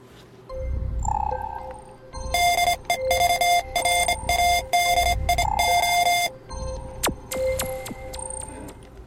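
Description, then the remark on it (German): The short version of a jingle: bright, buzzy electronic beeping tones in a choppy rhythmic pattern over a low pulsing beat, loud, ending with a few sharp clicks; no voices. “Nämlich, dass mich hat ja unseren aktuellen Jingle, den ihr ganz am Anfang gehört habt, den ich eigentlich nochmal spielen kann, äh, wenn ich ihn denn finde.”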